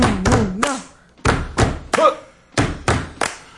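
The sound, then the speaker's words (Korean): Three rounds of a stomp-stomp-clap beat, clapped as the accompaniment for an unaccompanied song on a broadcast: two heavy thuds followed by a sharp clap, repeated at a steady tempo and loud, with some vocal sounds mixed into the first round. “이거 박수 좀 저희가 쳐주세요.”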